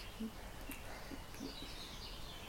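Faint birdsong, a few thin chirps and warbles over a steady hiss of outdoor ambience, with no voices present.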